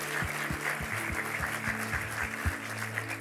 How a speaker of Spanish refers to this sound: queremos darte un aplauso de bienvenida. Gracias por darte el tiempo, bienvenido a casa.